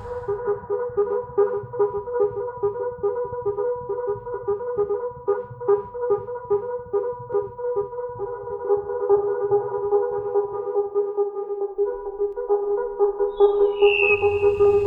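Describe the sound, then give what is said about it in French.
Midwife toads (Alytes obstetricans) calling: a steady chorus of soft, hollow piping tones that blend into an almost continuous hum, with a higher, thin whistle joining near the end. No one speaks. “Alites obstétricans un amphibien anour appartenant au sous-ordre des Opistocella et à la famille des Discoglossidae.”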